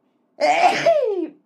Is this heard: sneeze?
yes